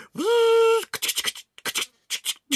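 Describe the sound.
A voice imitates a camera lens whirring with a steady, buzzy hum that rises and holds for under a second, then follows with a quick series of crisp clicks and shutter-like bursts.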